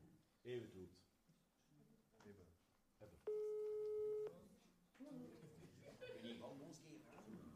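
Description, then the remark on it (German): A steady electronic phone tone sounds for about a second after the green call button is pressed, loud and clear, with low background murmur of voices before and after it. “Also, ich drücke jetzt auf den grünen Hörer, okay?”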